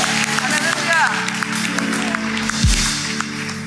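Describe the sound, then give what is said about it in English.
A church audience breaks into a celebration clap after a prayer, steady, dense applause with scattered cheers and a rising whoop near the start, while a low sustained musical tone hums underneath throughout. “Can we give a celebration clap?”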